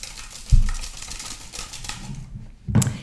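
Folded paper question slips rattle and rustle inside a small container made of toothpicks with pink thread woven through it as it is shaken before a question is drawn, a dry papery patter with two sharper jolts, one early and one near the end.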